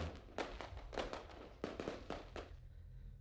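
A rapid series of sharp fireworks bangs and crackles in a dark, unlit rice field, several overlapping bursts in quick succession, fading into a low rumble at the end with no talking.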